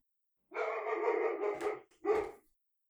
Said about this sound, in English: And that's okay. We're going to leave that in. That's dogs.